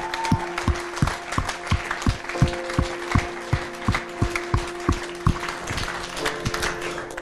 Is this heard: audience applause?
yes